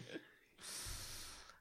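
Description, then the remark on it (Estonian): A single sharp, raspy gasping inhale, fairly loud, lasting about a second, a disgusted intake of breath at the foul smell of inhaling the prank liquid 'liquid ass'. “jah, see on, see on see heli, mis sa teed, kui sa liquid ass'i nagu sisse hingad.”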